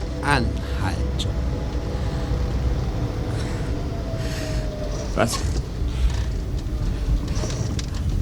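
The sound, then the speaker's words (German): A car engine idles on a side track with a steady, low rumble for the whole stretch, broken by a few short clicks and knocks along the way. “Stell den Motor ab.”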